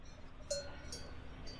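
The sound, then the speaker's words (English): A cowbell clanks faintly a few times at uneven intervals over a low, steady background hum with no one talking. “You might hear my bell in the background.”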